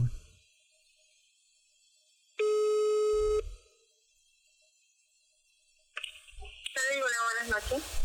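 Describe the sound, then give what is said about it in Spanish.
A single steady telephone ringing tone sounds for about a second after a quiet stretch, as a call is placed to a motel to ask a question; voices come in toward the end. “Vamos a llamar. ¿En serio? Sí, vamos a hacer una consulta.”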